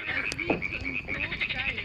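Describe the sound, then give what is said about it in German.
A dense, continuous chorus of frogs croaking their mating calls on an early summer evening by a campfire, a steady high-pitched trilling pulsing throughout, with the faint crackle of the fire underneath and no talking. “Lausche dem Knistern des Feuers, den Paarungsrufen der Frösche.”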